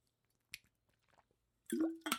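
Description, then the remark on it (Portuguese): Someone drinks water: a brief wet click, a pause, then louder slurping gulps and swallowing noises at the end. No one speaks. “O que é que eu bebo hoje? água. Bebo água.”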